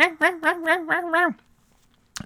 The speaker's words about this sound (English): and right now uh, that fucking dog's having a real field day outside, and I can hear it in my headphones, so I'm sure it's picking up, uh, hopefully faintly,